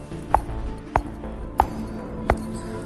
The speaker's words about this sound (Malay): Dia dengar lagi ada orang ketuk tingkap bilik dia